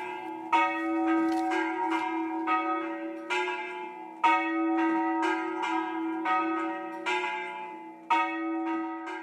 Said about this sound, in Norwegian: Og det var nok helt klokkeklart at det måtte legges i Valdres. Der ringer de ikke klokkene, de spilles, slik vi hører det her fra klokkene i Hegge stavkirke midt mellom Fagernes og Beitostølen.